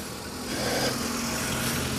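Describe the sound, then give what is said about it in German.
A local resident's car engine hums in a village, its broad rumbling noise swelling after a moment and holding steady as the vehicle moves past, with no voices present. “Ja, dieser Anwohner hat mich gerade aus seinem Auto misstrauisch beäugt.”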